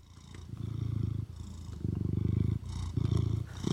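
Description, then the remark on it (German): A cat purrs in steady, rumbling cycles, each long buzzing exhale followed by a brief softer inhale, repeating about four times with no talking. “damit ich jetzt keinen Katzen-Content mehr spiele. Das heißt, ab sofort gibt's jetzt nur noch das hier.”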